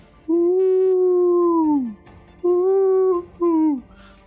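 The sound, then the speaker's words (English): Three long, mournful calls of large whale-like creatures floating up in a nebula, each a sustained tonal moan that bends downward at the end; the first is longest, the last two shorter, loud with no talking. “as these whale-like creatures begin floating up alongside uh, of you.”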